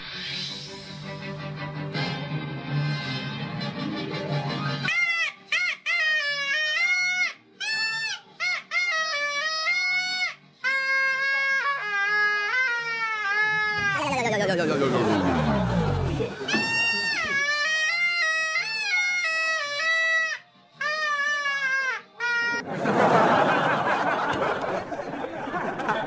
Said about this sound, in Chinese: 视频画面显示，男孩架势十足，撸起袖子就开吹。但当唢呐声响起的时候，观众是一听一个不吱声。反正我不能一个人聋，你们都给我听。